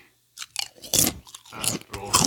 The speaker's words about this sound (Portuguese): Além do cara não me oferecer um copo de água, ele reclamou da jujuba que eu comi porque fazia barulho no microfone.